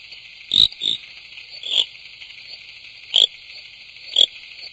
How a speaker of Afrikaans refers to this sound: Pikkersgeel se ritpaddatjie, 'n moeilike ouetjie om te vang want hy roep laag in digte digte riete. Dicht, sit hy en roep die oomblik as jy hom gaan versteur, dan duik hy in die water in.